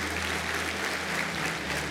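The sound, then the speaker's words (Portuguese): Steady applause from a large audience applauding the word of the Lord after a Bible reading, a dense continuous wash of many hands clapping at even loudness throughout, with a low hum underneath and no voices. “Glória a Deus, aplaudam a palavra do Senhor.”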